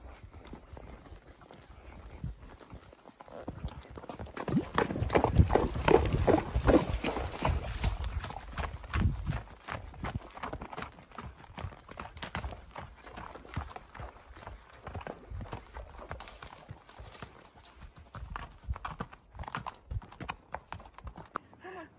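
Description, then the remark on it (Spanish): Horse hooves clop steadily over stony ground, fairly loud, with sharp irregular strikes that swell in the middle and continue to the end without any talking; the horse is afraid and finds the stones difficult. “Ya, ya tiene miedo porque con los las piedras el caballo Está difícil, pero...”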